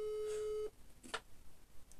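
A steady electronic telephone tone sounds for under a second as someone places a phone call, then cuts off abruptly as the call is hung up right away, followed by quiet with a brief click or rustle.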